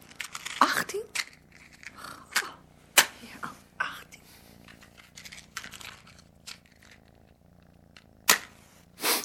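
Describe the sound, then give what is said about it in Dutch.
An old cat, about 18 years old, purrs in a steady, low rumbling drone, broken every second or so by sharp clicks and rustling handling noises. “Het wordt echt al een oud katje.”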